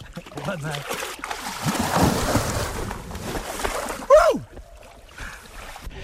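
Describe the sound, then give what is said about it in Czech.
A person plunges into ice, or under the ice: broad, churning splashes and sloshing build through the middle, then a sharp burst with a brief voiced cry, fading to quieter dripping water. Voices are faintly present. “Tak, teďka si houpsne do ledu, nebo pod led.”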